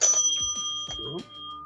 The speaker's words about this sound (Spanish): Esta es un timbre de cuando tú llegas a un hotel y a lo mejor en recepción o en los restaurantes, ya está listo el café.